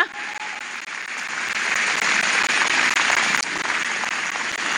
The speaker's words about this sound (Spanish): Quiero que me ayuden a dar un aplauso a todas las que pusieron este decoración hermosa.